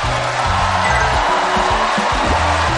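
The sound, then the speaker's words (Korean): Steady, dense applause from a crowd welcoming guests, fills the whole stretch, a continuous loud patter with a band or music playing low underneath and no talking over it. “여러분 박수로 환영해 주십시오.”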